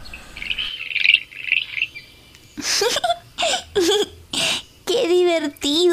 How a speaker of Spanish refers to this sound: existen osos hormigueros que pueden medir hasta dos metros, más altos que yo, Sammy. Ah. Y emiten este sonido